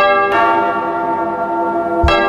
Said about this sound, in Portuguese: Toca o sino, sacristão.